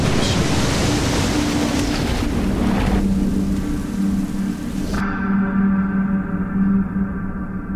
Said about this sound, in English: Around them, the ocean swelled, rising waves reflecting the flashing lightning.